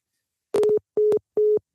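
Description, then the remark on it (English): Three short, evenly spaced telephone beeps at a steady mid pitch, each with a slight click at its start and end, signalling a prison phone call through Global Tel Link cutting off. No voices. “I know we're going to get cut off real shortly.”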